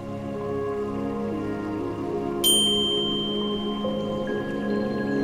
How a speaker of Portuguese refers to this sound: Ao ouvir o sino, feche os olhos.